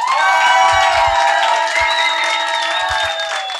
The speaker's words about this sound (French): On peut encore euh, l'applaudir bien fort.